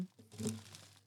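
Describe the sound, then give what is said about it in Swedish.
Thin writing-paper gift wrapping crinkles and rustles in a brief, busy burst, with a louder crumple in the middle before it settles into softer rustling. “Eh, och mitt är mer så här skrivpapper typ.”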